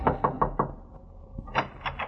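Knocking on the door of apartment 208 in a two-story apartment house: four quick raps in a steady rhythm, a short pause, then three more knocks, fairly loud with no voices.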